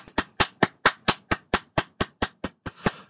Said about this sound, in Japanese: まあ、拍手ということで、えー、拍手をさせていただきます。おめでとうございます。